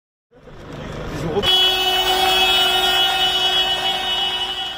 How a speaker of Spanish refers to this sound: Así suenan las protestas del sector primario en Europa. Los agricultores han sacado sus tractores a la calle y los ganaderos se han unido a esas protestas en una oleada de manifestaciones que recorre países como Francia, Alemania o Bélgica